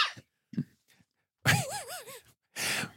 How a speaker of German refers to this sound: Sollen wir deine, deine Spur stumm schalten, während du verreckst, oder möchtest du kurz husten? Alter, ich habe gehustet.